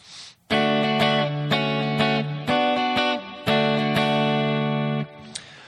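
An electric guitar strums a short chord progression in the key of D (D, D major 7, D6, then back to D) in a steady rhythm, each chord ringing out clearly before the next. It is fairly loud, with no voices.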